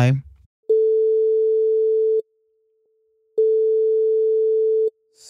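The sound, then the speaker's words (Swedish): A phone line rings out with two long, steady electronic tones separated by a pause, loud and clear, after a brief bit of talking at the start, as a call is placed to a man. “Eh, vi testar ringa honom och se om vi får tag på honom för att ja.”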